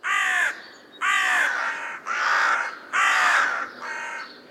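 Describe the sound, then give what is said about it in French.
A crow caws four times in a steady rhythm, each harsh, raspy call loud, with brief pauses between them and no voices present. “Prenez l'appel du jet des chênes. Ou simplement de la corneille.”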